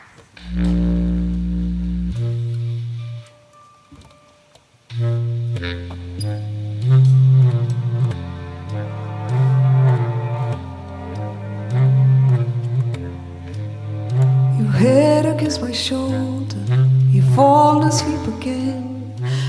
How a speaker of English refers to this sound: we are going to listen to some music.